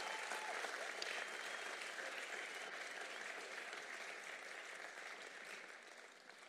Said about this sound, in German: Lass uns doch der GL nochmal einen ganz wertschätzenden Applaus nochmal geben.